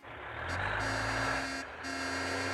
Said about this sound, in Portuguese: Moço, moço, tem lixo! Ai meu Deus, moço, volta aqui, tem lixo esse menino! E o caminhão do lixo já passou.